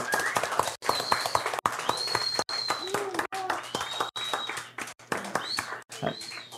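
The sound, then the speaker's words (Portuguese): A crowd claps in a steady, dense round of applause lasting several seconds for a professor at an event reviewing an exam, with a few whistles and cheering voices mixed in over the clapping. “Uma salva de palmas, professor”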